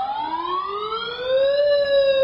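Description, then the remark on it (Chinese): A ship's main engine room alarm wails in one continuous tone that climbs steadily in pitch and then levels off, loud and buzzy with strong overtones, sounding alone with no voices, during a naval damage-control drill after a fire was put out, signalling flooding in the main engine room. “成功灭火后，主机舱再次传来警报。”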